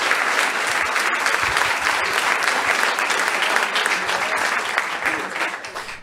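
Sustained audience applause, a dense steady wash of many hands clapping at an even loudness for about six seconds, tapering slightly at the end, with no talking over it.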